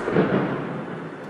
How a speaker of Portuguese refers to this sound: Sim, estamos em São Paulo e está chovendo forte, tá pessoal?